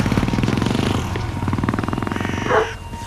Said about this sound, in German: Doch der Scharfschütze hat das Feuer eingestellt. Er springt auf sein Motorrad und fährt davon.